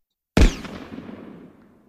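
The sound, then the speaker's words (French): A single loud gunshot at the end of a David Fincher film cracks out of silence, followed by a long, rumbling echo that slowly fades away over about a second and a half. “Fincher voulait terminer après le coup de feu. Blamo, noir.”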